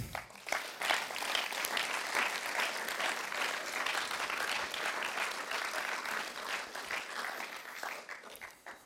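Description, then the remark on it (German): Sustained applause from an audience, a dense wash of many hands clapping at steady loudness for about nine seconds before tapering off at the end. “darf Ihnen gerne einen Applaus geben.”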